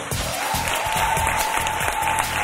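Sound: audience applauding and cheering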